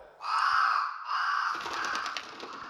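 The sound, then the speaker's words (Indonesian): A crow caws loudly, a harsh drawn-out call that breaks into a second caw and trails off into rough, rattling croaks. No one speaks. “di belakang lu ada suara burung apa ya, burung gagak.”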